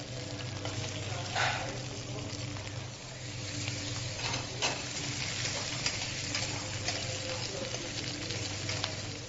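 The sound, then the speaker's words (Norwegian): A lamb shank sizzles steadily as it browns in a hot pot with olive oil, vegetables, garlic and rosemary, a continuous crackling hiss with a low hum beneath and a few brief louder pops and scrapes along the way. “Så er det hvitløken, rosmarinen og ikke minst lammeskanken. Den skal også brunes slik at den får en fin farve.”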